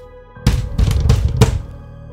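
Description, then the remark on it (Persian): A fist pounds on a door in four heavy, booming thuds at an uneven pace, with no voices, only a low rumble between the hits. “ناگهان صدای کوبیدن مش به در به هوا برخاست”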